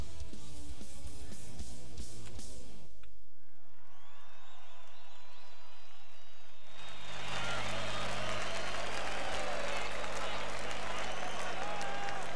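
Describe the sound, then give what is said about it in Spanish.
Audience applause at a live concert swells into a dense, steady wash of clapping after a brief burst of music cuts off, with crowd voices and a low rumble running underneath. “Fuerte ese aplauso para mí, yo te carajo.”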